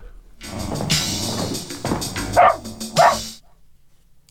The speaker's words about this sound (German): der Hund.